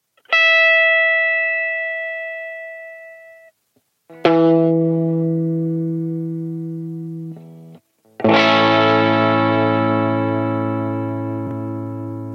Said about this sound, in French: j'ai juste branché ma Fender Stratocaster dans un ampli Fender Tweed Deluxe avec un haut-parleur de 12 pouces